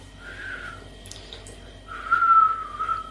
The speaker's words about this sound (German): Kannst du pfeifen?